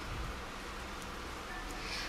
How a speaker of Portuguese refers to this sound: Eu comecei a gravar e começou a chover muito. Tá caindo o céu. Na verdade, tá chovendo tem uns três dias. Eu tô tentando gravar isso. Então vai estar tá com um ruidinho aí.